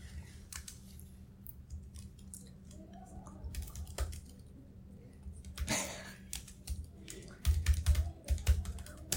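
Rapid, irregular clicks of someone typing on a computer keyboard, updating text in Google Docs, fairly quiet, with a low steady hum underneath and a few louder keystroke bursts near the end.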